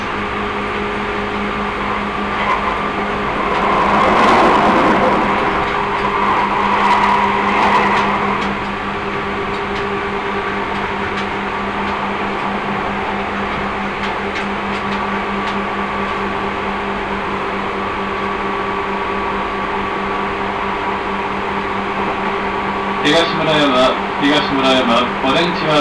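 A Seibu Railway commuter train, on the route from Hon-Kawagoe via Higashi-Murayama, Ogawa and Hagiyama to Ome-Kaido, runs steadily, heard from inside the car, its motor humming and the wheels rumbling, with a louder rush early on and a quick burst of rattling clicks near the end.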